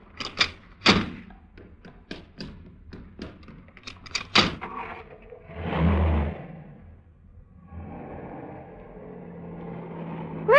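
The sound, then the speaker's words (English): Car doors click open and thump shut several times as driver and passenger swap seats so the passenger can take over driving, with shuffling and rustling of people moving in and out of seats, followed by a low steady idling engine hum. “Oh, don't bother to get out. I'll get out my side.”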